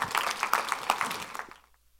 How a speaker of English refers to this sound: Can you say amen? Give the Lord a good hand clap.